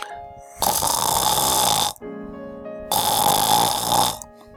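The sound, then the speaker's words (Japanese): Someone imitates snoring to demonstrate how snoring sounds, with two loud, rasping inhalation snores separated by a short pause with a low hum, and no talking. “なんか具体的にこう、どんな感じの音が出てるんでしょうかそうですね。まあ、これも、私もですね、下手ですけども、これあの、ちょっとやりますとですね、はい。”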